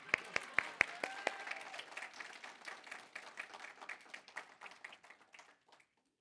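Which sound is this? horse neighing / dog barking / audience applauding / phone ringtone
audience applauding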